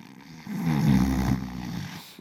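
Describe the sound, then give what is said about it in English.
A person imitates a single drawn-out snore, a rough, rattling, low-pitched rumble that swells and fades over about two seconds, with no talking. “You've heard that sound before? Yeah, the sound of your partner sleeping, or maybe you.”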